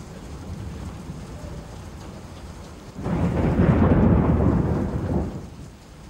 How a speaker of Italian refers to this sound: piove, senti come piove, madonna come piove, senti come viene giù